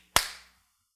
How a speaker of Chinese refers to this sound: 你要手拍手，这个是拍手的声音，但是拍手的声音里面有。无穷的变化，你能不能去掌握？